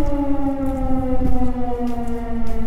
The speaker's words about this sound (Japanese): これ空襲警報ですね